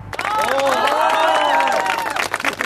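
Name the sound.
crowd applauding and cheering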